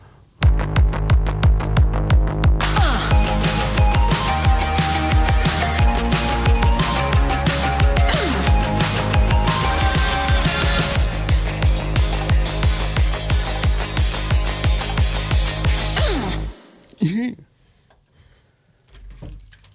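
A loud, driving band track with pounding drums, dense guitars and a steady beat plays for about sixteen seconds, then cuts off abruptly into near silence.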